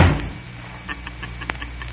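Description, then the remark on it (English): A front door slams shut with a heavy, booming thud right at the start, then a few faint clicks and light rattles follow as the bolt slides into the socket. No one speaks. “I'm sorry if the slamming door startled you.”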